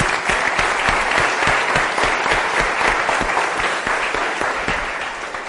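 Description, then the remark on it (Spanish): An audience applauds steadily, a dense wash of many hands clapping at an even, sustained level that eases off slightly toward the end. No one speaks over it. “Noten que hasta un aplauso por el plan individual, hemos acabado ese pedacito.”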